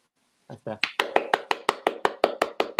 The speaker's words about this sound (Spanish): Aplausos.